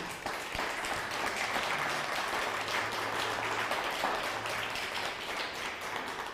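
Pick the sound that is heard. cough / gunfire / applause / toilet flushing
applause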